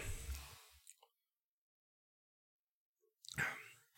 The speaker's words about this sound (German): Moment, Schluck Wasser.